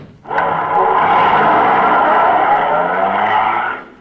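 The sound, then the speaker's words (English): A police squad car's engine roars loudly, revving hard as the car speeds away with a screeching whine, sustained for about three seconds before cutting off, with no voices. “Get in the squad car, the both of you.”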